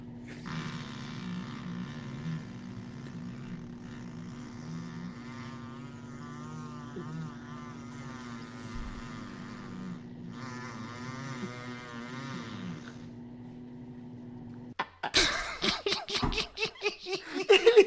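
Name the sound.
long fart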